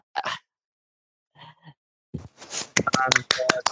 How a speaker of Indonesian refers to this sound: Ya, gue gak bisa berisik-berisik, udah pada tidur. Makanya gue tepuk tangan aja ini. Tepuk kaki aja kan, pelan.